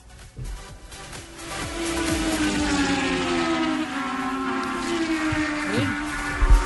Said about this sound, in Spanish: se escucharon y son los rugidos del nuevo motor de Montis